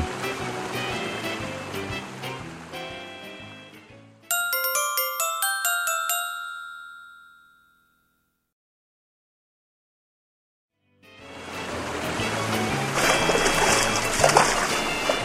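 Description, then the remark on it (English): Busy splashing and churning water from a platypus mother and her babies swimming, her front feet pushing through the water, fills the opening seconds, gives way to a bright chiming melody and a brief silence, then the splashing returns loudly. “The platypus mom shows her babies how to swim. Her front feet push through the water.”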